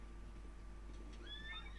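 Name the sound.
horse neighing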